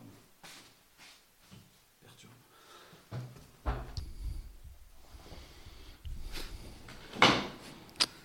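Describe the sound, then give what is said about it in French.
Footsteps and rustling movement lead to a door being pushed shut, with a sharp clunk near the end and a small click just after, amid breathing noises. “Je vais fermer la porte parce que le déclenche.”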